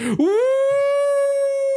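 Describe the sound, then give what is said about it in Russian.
A voice imitates a wailing siren: one loud vocal tone sweeps quickly upward, then holds a high, steady, slightly wavering pitch for over a second before cutting off. “Прям воет сирена, да.”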